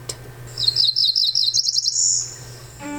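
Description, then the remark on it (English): A small songbird, a cerulean warbler, gives its call: a quick series of high, buzzy notes that rise into a thin, higher-pitched trill, heard clearly and alone over a low steady hum. “Their call is buzzy notes ending in a higher pitched trill.”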